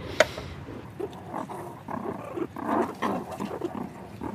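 Low growling from meerkats, with bursts of rough snarls and a sharp hiss near the start, continuing irregularly throughout.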